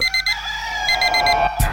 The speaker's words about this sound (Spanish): Suena el despertador.